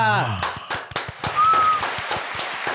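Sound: applause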